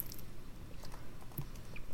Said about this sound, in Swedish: Så jag sitter nu och tuggar på en ingefära och dricker te.